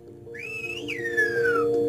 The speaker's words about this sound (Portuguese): Porque gostava de saber se é daqueles assobios que a mim sempre me pareceu física quântica, que é aquelas pessoas que põem os dois dedos na boca. Sim. Isso. Olha, olha, eu, eu consigo. É isso? É sim.